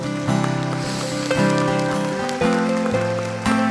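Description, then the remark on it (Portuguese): An audience applauds for the Lord during a morning worship service in a dense, steady wash of clapping, sustained keyboard chords sounding beneath it and shifting roughly every second, with no voices over the top. “Nós queremos, ó Deus, em reconhecimento à soberania do Senhor, em reconhecimento ao teu amor, e agradecendo ao perdão do Senhor é uma salva de palmas para o Senhor nessa manhã.”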